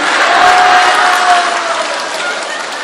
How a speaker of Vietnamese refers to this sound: vỗ tay là kích thích đó nghe quý vị vỗ tay là kích thích đó nghe mấy bà